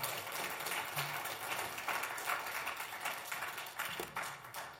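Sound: audience applause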